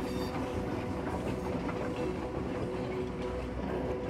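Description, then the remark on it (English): A train rolls steadily along the rails at twilight, its low continuous rumble broken by faint rhythmic clacks of wheels over track joints, heard from inside a carriage with no talking. “You're getting more and more relaxed and feeling grateful for these beautiful moments in the twilight upon this sleepy train.”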